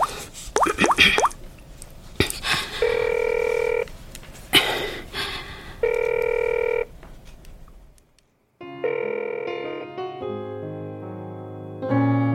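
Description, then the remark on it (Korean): A phone call being placed: a few quick taps and clicks, then two long steady electronic ringing tones with pauses, followed by a tinny, bright melody playing over the line. No one speaks. “전화 전화.”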